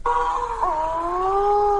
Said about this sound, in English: When I was visiting the Conservation Metrics office, Matthew and his team played me a bunch of other different bird calls.